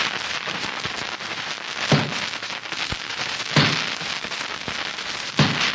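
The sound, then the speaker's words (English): Three heavy, evenly spaced chopping blows of an axe striking a tree in the Kunlun Mountains land about every two seconds over a steady crackling hiss. No one speaks. “That's the sound of an axe chopping a tree in the Kunlun Mountains.”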